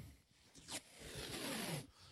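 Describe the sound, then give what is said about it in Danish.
A strip of adhesive tape is pulled away in one steady, raspy rip lasting about a second, fairly loud, with a short crackle just before it starts. “Og man bliver ikke, øh, man bliver ikke bare, øh, altså ligesom sådan noget tape her”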